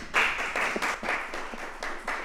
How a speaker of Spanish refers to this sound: Estos son integrantes de la banda …. Yo creo que le deberíamos dar un aplauso porque … está aquí, señores.